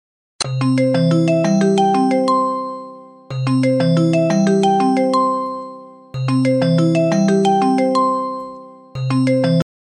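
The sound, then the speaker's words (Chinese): A bright, melodic chiming ringtone of an outgoing WeChat voice call to a guest repeats in loops of about three seconds, each loop starting loud and fading slightly before the next begins, with no voices. “等一下，我先给他打个微信电话。”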